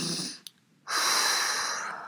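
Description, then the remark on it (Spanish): A short exhale, a brief pause, then a long, deep breath drawn in slowly through the nose, steady with an airy hiss: a slow diaphragmatic belly breath that inflates the belly. “Es una respiración en la que hinchas la barriga”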